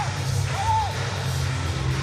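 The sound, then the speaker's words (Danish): Stadium spectators in Horsens cheering a goal in a football match against Australia: a steady, dense crowd roar throughout, with one rising-and-falling whoop cutting through partway in. “Jeg synes faktisk, det lignede et selvmål, men det er Stine Larsen, der kommer og presser den australske forsvarsspiller, og det er altså en god, god bold, mens vi lige ser tilskuerne juble over det mål.”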